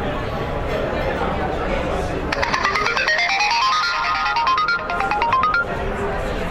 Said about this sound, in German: Also man hat jetzt einen Jingle gehört, die Lautstärke ist sehr hoch. Und gerade ein Piepsen.